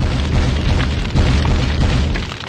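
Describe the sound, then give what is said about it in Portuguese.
A heavy, rumbling MOAB bomb-explosion boom effect that roars continuously for a couple of seconds, loud and bass-laden with crackling texture, with no voices over it. “Solta Moab, fogo no Turu.”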